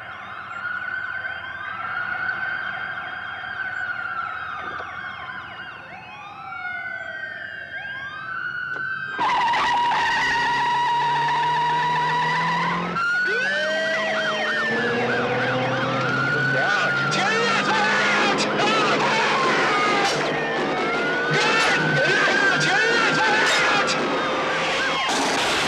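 Wailing sirens rise and fall over each other in a film car chase, growing louder and denser partway through as engines roar and tires screech under the overlapping siren sweeps.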